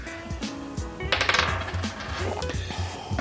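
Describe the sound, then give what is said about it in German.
A die is rolled to choose the next question, tumbling across a hard tabletop in a quick burst of rattling clicks, then a few scattered taps as it settles. Fairly loud, with no one speaking. “Jetzt würfelst du die nächste Frage.”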